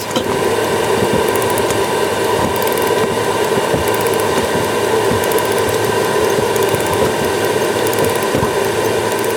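The clockwork of a pollen trap in Vienna ticks and ratchets steadily as it is wound to keep the trap's drum running, a dense run of rapid mechanical clicks lasting throughout with no voices.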